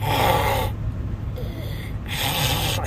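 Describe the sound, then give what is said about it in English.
A person imitates the raspy, wheezy breathing through phlegm of a boy with a cough sitting in a hunting blind: a harsh, snore-like rattling inhale, a quieter pause, then another rough breath, fairly loud with no words spoken. “And he is sitting in the blind, and I can hear him breathing through like phlegm, like,”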